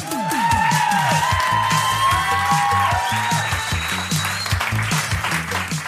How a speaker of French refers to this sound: Je vous demande un tonnerre d'applaudissements pour nos présentateurs et jurys